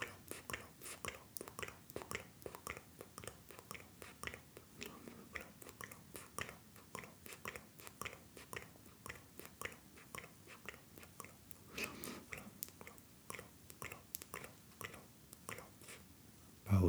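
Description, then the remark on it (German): Soft, slow tapping on the body repeats steadily throughout, each a light dull tap, with quiet rustling between beats and no talking. “wir werden diese Heilung nun noch verstärken und manifestieren, indem wir nun längst langsamer klopfen.”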